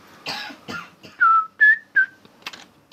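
A few close, rough coughs burst out, followed by three short whistled notes and another muffled cough near the end; no one speaks.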